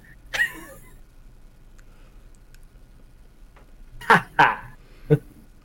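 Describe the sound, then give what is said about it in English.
A neighbor's dog barks once, falls quiet for a few seconds, then lets out three quick sharp barks in a row over a faint steady background hum. “I'm so glad my dog isn't like yappy like that.”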